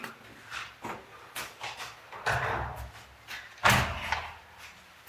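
A door is handled and opened with a few clicks and rattles, then swung shut with a loud slam, followed by quieter knocking movement; no one speaks.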